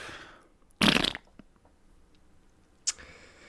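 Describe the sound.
A loud, sputtering raspberry blown with the lips, imitating a fart, lasting about a quarter second, followed later by a shorter, hissy burst and faint rustling.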